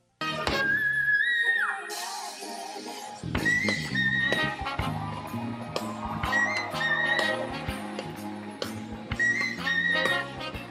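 A singer hits extremely high, thin whistle-register notes, piercing and flute-like, rising and holding above a full pop backing track with steady drums and bass.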